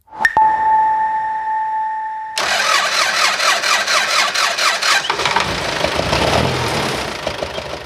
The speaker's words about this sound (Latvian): Ir 2021. gada ziema. Naktī uz 24. februāri Jēkabpils novadā ierūcis traktors.